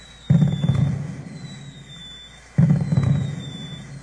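Two fireworks bursts boom about two seconds apart, each followed by a crackling, rumbling decay, with a faint high whistle drifting above.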